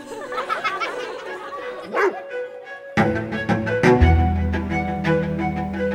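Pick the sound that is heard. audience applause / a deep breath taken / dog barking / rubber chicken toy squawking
dog barking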